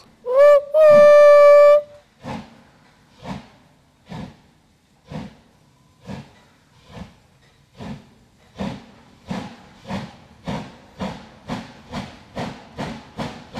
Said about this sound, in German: Und dann, plötzlich, war das Gleis der Menschen verschwunden und da stand eine Dampflok.